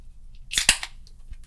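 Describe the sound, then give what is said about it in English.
A Coop Horny Toad blonde ale, from an Oklahoma brewery, being opened: a quick cluster of sharp cracks and a brief fizzy hiss, followed by a few faint clicks against a quiet low hum, with no talking. “go ahead and open up my drink”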